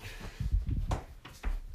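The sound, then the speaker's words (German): A door being pushed shut, a quick series of dull thumps and knocks with a few sharper clacks as it bumps against the frame and fails to close. “So, Tür.”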